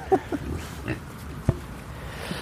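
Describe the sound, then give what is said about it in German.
A pig in a muddy enclosure grunts several times in short, low, irregular bursts, with one sharper snort near the end, all against a steady outdoor background hiss. “Warum ist denn das bei Schweinen eigentlich immer so matschig in den, in den Gehegen?”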